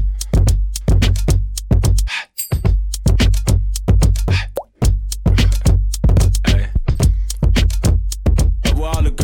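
A loud hip-hop track plays, with a thumping bass line pulsing steadily under a rapid rhythmic vocal delivery that barely pauses over the whole stretch.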